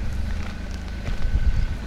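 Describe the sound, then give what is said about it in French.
Steady wind buffets the microphone outdoors, a continuous low rumbling roar with gusty surges toward the end and a faint engine-like hum underneath. “Il y a un petit peu de vent, est-ce que tu sais où on pourrait aller euh, Ouais, bah, on peut.”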